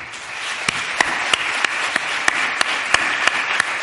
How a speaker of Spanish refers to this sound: Y de verdad quiero pedir un aplauso muy fuerte para todo el equipo que, que me ha estado ayudando.